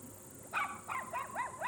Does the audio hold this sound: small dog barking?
yes